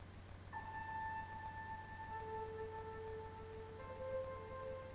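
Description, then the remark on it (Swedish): Soft, sustained synth-like tones of a background music snippet layer in one after another, holding long steady notes over a low hum and faint hiss, with no voices present. “sätter på en musiksnutt som min dotter Sanna har skapat som bakgrund”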